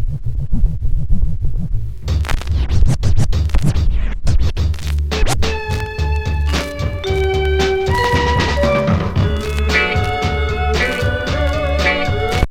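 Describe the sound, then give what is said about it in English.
A song's opening drum break, slowed down all the way, starts with heavy, muffled low thumps, then sharper hits and sustained melodic tones join in. It stays loud throughout, with no voices. “Let's slow it down all the way. Let's hear the top again.”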